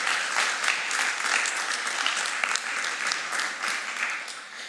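Steady audience applause fills the whole stretch, a dense crackle of many hands clapping at an even level without pause, with a faint murmur of voices mixed in.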